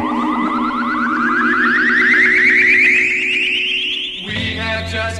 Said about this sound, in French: et il y a un son d'espace au début du morceau, comme tous les morceaux qu'on passe aujourd'hui.